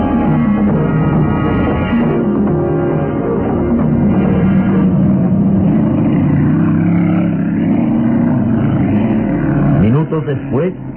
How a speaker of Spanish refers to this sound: Las recias y musculosas manos de Calimán se aferraban al volante de un veloz auto de carreras.